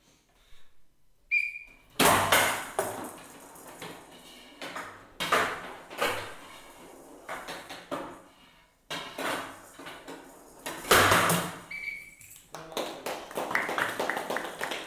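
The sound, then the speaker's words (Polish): A showdown match from the Polish Showdown league "nie tylko dla mistrzów", recorded from beside the table: loud, irregular bursts of sharp clattering and banging as the ball is struck and slams around the table, with a short, high whistle blast at the start and again near the end. “jest to nagranie właśnie z jednego z meczów e, polskiej e, ligi Showdown nie tylko dla mistrzów e, sprzed e, paru miesięcy.”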